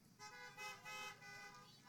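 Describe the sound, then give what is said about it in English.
Several car horns honk at once, overlapping in a steady chorus of sustained blasts that swell and dip over two seconds, with no talking. “Honk your horn if you agree with that.”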